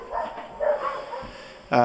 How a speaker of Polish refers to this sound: Psy szczekają, kolaudacja idzie dalej.